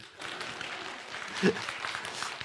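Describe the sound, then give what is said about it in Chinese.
An audience at a Chinese Academy of Sciences SELF Forum lecture claps steadily, a dense, even patter of many hands that holds at a soft, constant level for a few seconds with one slightly louder burst midway. “我首先介绍一下自己，我来自中国古动物馆，所以既然到这个地方呢，我先给中国古动物馆做一广告：看恐龙到中国古动物馆，大家鼓掌。”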